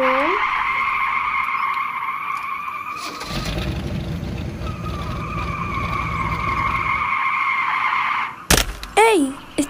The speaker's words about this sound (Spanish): ¿Estás bien? ¿Tenés una cara de susto? Fue solo un auto.